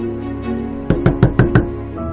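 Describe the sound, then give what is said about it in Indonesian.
A quick run of five sharp knocks on a window facing the back of a building, evenly spaced over under a second, against a steady low background hum. “dua kali ketukan dari arah jendela yang mengarah ke belakang gedung.”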